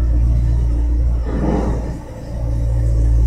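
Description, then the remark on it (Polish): A tractor's heavy engine rumbles steadily with a low droning hum, swelling briefly as it rolls past in central Madrid, then settling back into a constant idle-like growl. “Właśnie przyjechał traktor w centrum Madrytu.”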